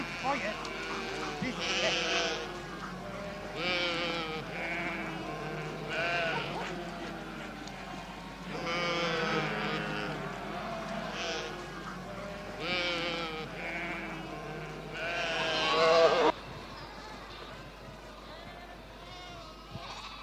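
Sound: flock of sheep bleating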